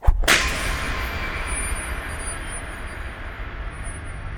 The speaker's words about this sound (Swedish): Och efter det hudstrykas, det vill säga piskas.